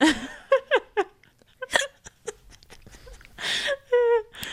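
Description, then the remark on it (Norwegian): Several short, abrupt hiccups scattered among breathy giggles and squeaky vocal sounds, with brief pauses in between and no clear speech. “Når du hikker, så betyr det at noen tenker på deg.”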